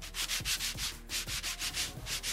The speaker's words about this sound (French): papier sablé. c'est ça, c'est du papier sablé. C'est du papier sablé.